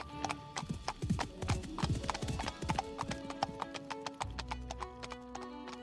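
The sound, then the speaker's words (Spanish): Horse hooves clip-clop on the dirt of a main street in a steady, brisk rhythm of sharp, moderately loud knocks, with a faint high whine lingering underneath. No one speaks. “Y, cuando no lo estaba, el agradable arrullo del golpeteo de los cascos de los caballos y el suave chirrido de las ruedas de las carretas sobre la tierra eran tan soporíferos como una canción de cuna.”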